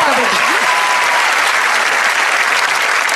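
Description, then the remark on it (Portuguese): A crowd claps steadily for a few seconds, a dense, even wash of applause at a fairly loud level, with a brief high whistle or cheer rising out of it near the start. “Palmas pra mim.”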